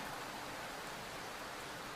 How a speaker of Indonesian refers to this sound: Gak ada siapa-siapa. Gue cuma ngelihat pohon-pohon yang diguyur hujan.